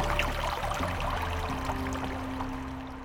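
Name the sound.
pouring water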